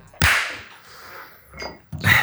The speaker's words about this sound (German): Der Clap hört sich immer so richtig geil an, Alter. Wie so ein, kennst du diese ganzen äh, Bud Spencer-Filme immer so? Krusch, krusch. Ja, genau, genau. so hört sich den Clap an, Alter. So, so muss es auch sein.